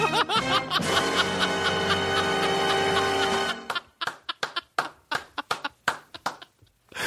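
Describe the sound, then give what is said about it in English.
A single person claps about a dozen times in an uneven rhythm, sharp, right after a stretch of loud, sustained laughter. “By the way, I'm not applauding beating your kids.”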